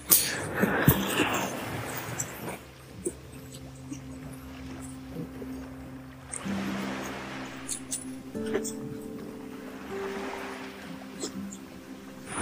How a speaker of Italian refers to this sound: Non so neanche se sentirete la mia voce, visto il fragore delle onde che si infrangono sulle rocce.